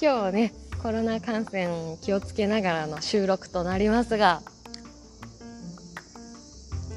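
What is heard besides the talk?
cicadas chirping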